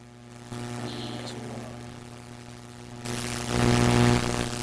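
A steady electrical buzzing hum from a faulty audio cable drones throughout, joined by crackly static that swells in brief bursts, growing loudest and harshest near the end. No one speaks.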